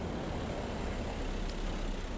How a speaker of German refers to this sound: Beim Spazierengehen durch Lagos. Ich bin hier jetzt an meiner Wohnung angekommen. Es sind super enge Straßen. Jetzt fährt hier gerade ein Auto vor. Ich muss mal kurz aus dem Weg gehen. Vielleicht hörst du es auch.